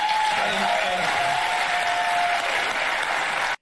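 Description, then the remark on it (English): A crowd in 2024 applauds steadily at an applause line, a dense wash of clapping that holds at full strength for a few seconds before cutting off abruptly, with a faint whistle or cheer riding over it early on. “It's hilarious that that's an applause line in 2024 based on the people that are running against him.”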